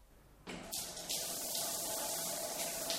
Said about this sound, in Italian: Per questo mi sto strofinando sotto la doccia.